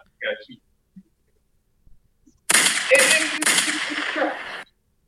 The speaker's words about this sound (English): I heard the gunshot.